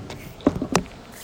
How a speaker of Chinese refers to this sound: 在美术馆前面放了酒精消毒，刚刚是用酒精消毒手的声音。